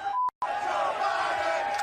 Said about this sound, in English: now the let's go brandon Award. You can hear the chants from the crowd.